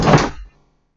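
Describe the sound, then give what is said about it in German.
A chair breaks during a recording with a sudden loud crack and heavy thunk, one burst of splintering impact that dies out within half a second. “Ähm, ein Stuhl ist kaputt gegangen während der Aufnahme.”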